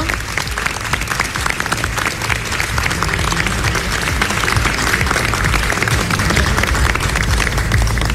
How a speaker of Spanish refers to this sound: Yo quiero volver a reiterar el aplauso al ministro Montes que en la sala se le dio, que en el equipo se le dio.